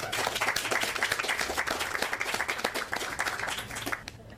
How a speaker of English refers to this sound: Let's give her another hand.